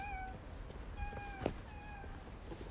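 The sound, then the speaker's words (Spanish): A voice imitates a cat with three high, drawn-out meows, evenly spaced about a second apart. Each is a steady, tonal call over a faint background hiss, with no other talking. “¿A que me parezca un gatito?”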